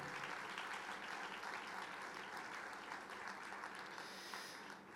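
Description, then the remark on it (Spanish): An audience applauds together in praise of the Lord after a prayer, a sustained burst of clapping, dense and steady for several seconds, filling the room at a fairly loud level with no speech over it. “ese aplauso de alabanza al Señor.”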